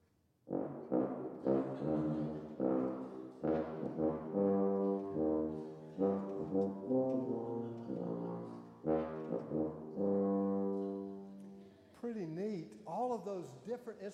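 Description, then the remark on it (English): A tuba plays a slow melody of sustained, buzzy low notes, each held for a second or two with brief gaps, ending with a few wavering, bending tones. “And Dorian plays the tuba.”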